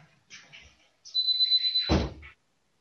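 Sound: someone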